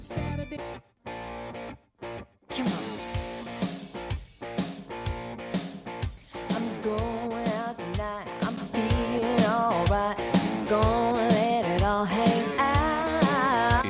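A funky pop song plays loudly with a driving beat and bright, effects-laden instruments, starting with a few stuttering stop-start hits before settling into a steady groove with no talking.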